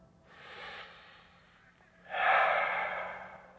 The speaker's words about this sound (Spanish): Encuentra esa respiración. Vamos a respirar hondo y profundo.